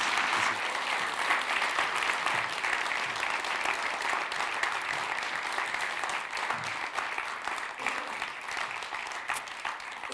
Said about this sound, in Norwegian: Skal vi gi han en varm applaus?